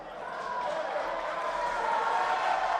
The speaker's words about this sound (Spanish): Aplausos de la oposición en el Congreso